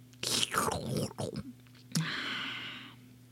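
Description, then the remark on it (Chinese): A voice playfully imitates crunchy chewing and gulping while eating up leftover food at a dining table, with quick, rhythmic mouth sounds, followed by a longer breathy, hissing exhale that fades out. “哎呦，我来吃掉吧！嘎吱嘎吱，咕咚咕咚，”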